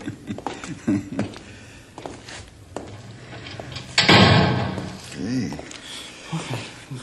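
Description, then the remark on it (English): A heavy door swings shut with a loud thud around the middle, followed by rattling as it is secured to prevent an escape. Indistinct voices murmur before and after. “you, uh, take no chances with that door, do you”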